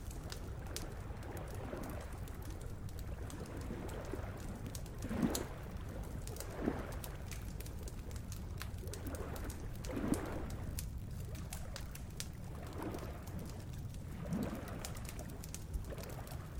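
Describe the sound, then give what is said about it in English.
A dawn chorus of birds, led by a pigeon or dove cooing softly at intervals over a steady hush of background chirps and faint ambience, with no one speaking. “It was dawn, and the early morning chorus of birds was in full force over the airwaves.”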